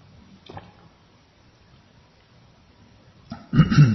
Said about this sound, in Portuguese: deixa eu tomar água aqui, poxa vida.